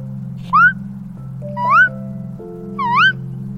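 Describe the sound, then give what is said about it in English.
Three squeaky, rising chirps from a voice mimicking a bird call, evenly spaced about a second apart, fairly loud over a steady low background hum. “Kind of like a squeak and a chirp mixed together.”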